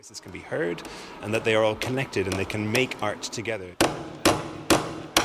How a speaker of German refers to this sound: Und so schallt durch die Ausstellung das Geräusch, wie Nägel in eine weiße Holztafel geschlagen werden.